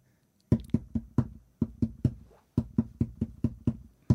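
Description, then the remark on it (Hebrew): A hand taps out a song's rhythm on a hard surface for a guessing game, a pattern of sharp, fairly loud knocks in two quick phrases separated by a brief pause, with no one speaking. “עכשיו, אתה לא מבין למה הוא לא שומע דרך הקשות כן, האלה.”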